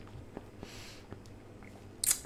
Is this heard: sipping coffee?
yes